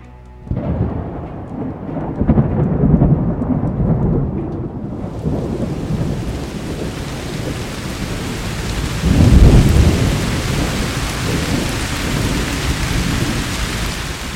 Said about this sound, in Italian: Nel tragitto dall'auto all'ingresso delle ambulanze, mi inzuppai di acqua e quella pioggia fredda e scrosciante